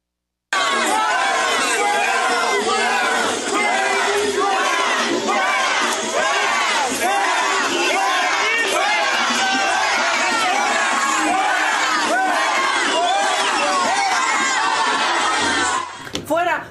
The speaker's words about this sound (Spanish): así salió del debate Alejandra del Moral, coreada por los porros de Morena